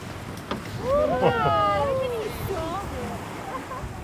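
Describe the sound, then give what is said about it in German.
Outdoors on a boat deck at sea, steady wind and rushing water noise fill the scene as dozens of striped dolphins leap around the boat. Voices of people on board let out drawn-out, excited exclamations over the top. “Wir gehen nach draußen, wo die Tiere ums Boot herumspringen.”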